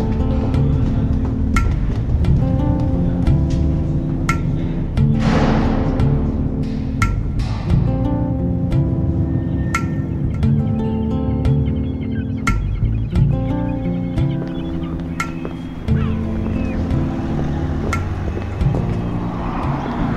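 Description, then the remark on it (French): Steady, fairly loud seafront street ambience beside a row of early twentieth-century buildings: a continuous low rumble of traffic with passing vehicles, scattered sharp clicks and knocks, and faint bird calls, with no one speaking. “Donc là, on est sur le front de mer, donc il y a une enfilade de bâtiments euh, qui doivent dater du début du XXe siècle, très charmant, très coquet”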